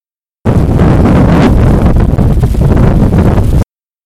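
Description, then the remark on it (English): Strong wind recorded outdoors in Europe roars in a steady, loud buffeting rush, with heavy low rumbling gusts battering the microphone for a few seconds and no voices. “Sounds pretty windy to me. It was in Europe where I recorded this wind speed sound.”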